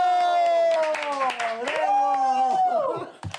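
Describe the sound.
Rapid scattered clapping runs under a loud, drawn-out voice that holds and slides its pitch, like an excited shout or cheer, ending in a few louder claps, as a guest artist is welcomed onto a show.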